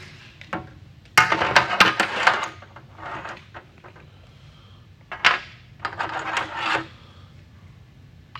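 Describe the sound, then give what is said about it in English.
A lighter's flint wheel is struck over and over, giving short gritty rasps in irregular bursts separated by brief pauses; no one speaks. “See, by itself, this lighter, it does light pretty well.”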